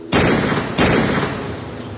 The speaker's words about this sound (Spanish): Sentí mucho dispararle a bocajarro en el pecho.